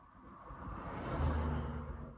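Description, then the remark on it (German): A vehicle passes close by on a street, heard from a car standing directly at the street, its low rumble and broad whoosh swelling to a peak midway and then easing off, with no voices present. “Hier jetzt gerade ist es ein bisschen schwierig, weil ich direkt an der Straße stehe mit dem Auto.”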